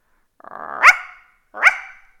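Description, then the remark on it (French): A guard dog barks twice, loud, each bark hoarse and raspy with a gruff rising onset, separated by a short pause. “Aboya le chien de garde. Il ne pouvait plus aboyer juste et était toujours enroué depuis qu'il n'était plus chien de salon et n'avait plus sa place sous le poil.”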